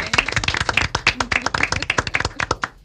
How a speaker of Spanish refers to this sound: Bienvenido, Omar. Vamos a recibirlo con un aplauso, Omar.